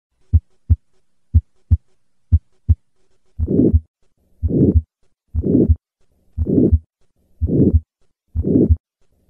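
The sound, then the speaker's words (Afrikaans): Three pairs of crisp, normal heartbeats, then six loud whooshing murmurs of aortic stenosis, each a harsh swelling rush between the heart sounds from a stenotic aortic valve that does not close properly, repeating steadily with no talking. “Die eerste 3 klanke is normale hartklanke, lip dip, lip dip, en dan die suisgeluid wat jy tussen die lip en die dip hoor, is die aorta klep wat nie reg sluit nie en wat stenoties is.”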